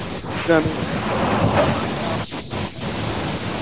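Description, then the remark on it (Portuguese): A washing machine runs with a steady, loud whooshing rumble that fills the whole clip, while brief fragments of a voice come through over the noise. “tá dentro da máquina de lavar, pô.”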